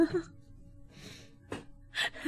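Close-up sucking and slurping through the straw of a water bottle, a few short airy pulls with small gulping pauses between them, loud and right at the microphone with no talking.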